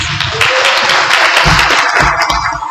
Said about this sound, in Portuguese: É, em memória do meu pai, do Chico Aguiar e do Nilson Samuels, eu queria uma salva de palmas.